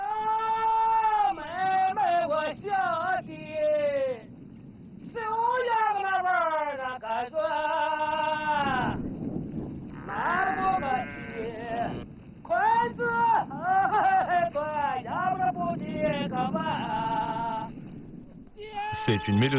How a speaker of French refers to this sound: Nous venons de trouver des bergers avec des voix d'opéra. Ce que nous entendons s'appelle Urgentai. C'est un duo folklorique originaire de cette partie du Shanxi.